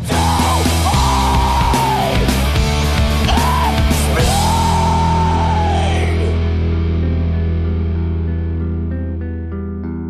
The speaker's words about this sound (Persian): البته یکی دیگه از این روش ها هم ادای آواز این موسیقی به شکل جیغ و داد یا فریاد بود چیزی باز هم شبیه آواز همین آهنگی که حالا و زیر صدای من میشنوید